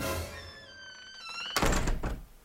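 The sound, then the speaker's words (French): A ball bounces off a bandit's belly with a single dull thunk, preceded by a thin, wavering tonal squeal that fades just before the impact. “C'est c'est celui d'une balle qui rebondit sur la bedaine d'un bandit.”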